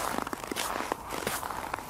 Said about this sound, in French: la souris entend de bruit de pas.